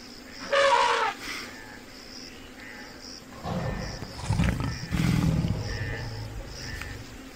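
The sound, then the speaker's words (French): A lion lets out deep, rumbling roars in two loud surges, set against a background of chirping birds and insects with a brief shrill call near the start. “Lion, girafe et autres zèbres.”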